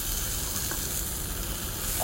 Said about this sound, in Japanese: 河川敷暗いんで、焼き目が謎、じゅうじゅう言うてることは言うてるけども